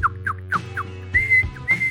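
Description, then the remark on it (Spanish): A person whistles in imitation of a bird: a string of quick, chirpy notes followed by two longer, steady whistled tones, clear with no talking. “Así que trata de imitar el galope de un caballo, o el sonido de un pájaro”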